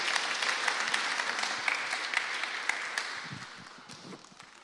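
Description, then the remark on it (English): A crowd applauds steadily as presenters go back to their seats, a dense wash of many hands clapping that gradually thins and softens toward the end, with a few low voices surfacing as it fades. “So give them a round of applause as they go back to their seats.”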